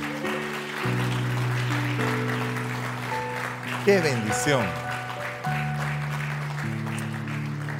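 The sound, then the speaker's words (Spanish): A church audience claps steadily in applause for the King of Glory, the applause blending with sustained keyboard chords and a brief spoken exclamation over the top. “Denle un aplauso al Rey de la Gloria.”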